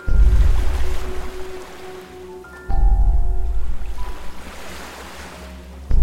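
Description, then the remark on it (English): Heavy ocean waves crash in loud surges, two big breakers a few seconds apart, each swelling with deep rumble and hissing spray before receding, with wind roaring throughout. “Water's getting rough real fast.”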